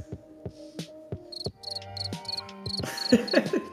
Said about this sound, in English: Aha! So it's it one of you that's trolling me with the crickets.